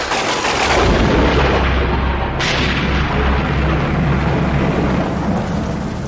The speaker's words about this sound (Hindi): बहुत ही तेज बारिश होने लगी और बादल गरजने लगे